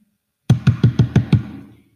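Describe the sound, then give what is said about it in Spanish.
Six loud, heavy knocks pound on a door in quick, even succession, each a booming thud with a short resonant ring that fades after the last blow. No voices are heard. “En ese mismo momento se oye llamar a la puerta estruendosamente.”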